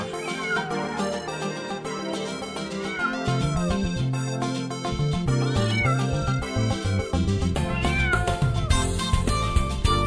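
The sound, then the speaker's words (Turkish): Repeated cat meows sound over a lively, continuous musical accompaniment with steady bass and bright instruments, the meowing fairly loud and mixed into the music throughout. “Kedicim kedicim gel seveyim seni ben Miyav miyav diyerek yaklaşıver bana sen”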